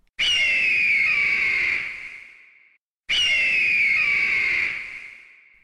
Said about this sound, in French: Et voilà un aigle qui trompette. C'était un aigle royal d'ailleurs.